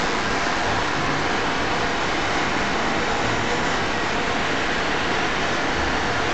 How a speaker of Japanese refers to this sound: 今このバーンとうるさいのはエアコンの音なので ちょっとあれですけど